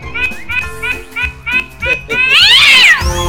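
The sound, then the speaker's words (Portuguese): A cat meows repeatedly in a quick series of short, whiny cries, ending in a louder, drawn-out yowl; fairly loud, with some faint background sound. “Alma de gato, o seu gatinho manhoso, é isso aí, vamos lá.”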